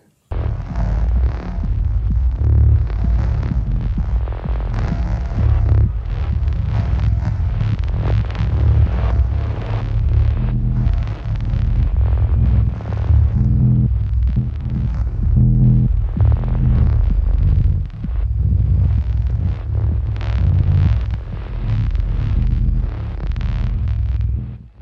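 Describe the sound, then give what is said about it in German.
A dense, throbbing drone of ambient music, heavy low hum pulsing steadily with hazy upper textures, loud and continuous throughout with no voices. “Das alles könnte man hineindeuten in dieses Stück Musik”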